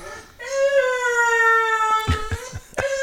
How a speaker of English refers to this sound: That sounds like a baby. Fucker. It is. It's a uh, baby dog. yeah, he's a baby, all right. He's a ten-year-old baby.